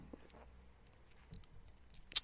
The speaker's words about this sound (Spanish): Bebo un trago. Mm.